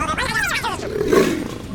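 A jaguar's roar rumbles loud, a rough, throaty growl that swells and then trails off in a single drawn-out call lasting under two seconds.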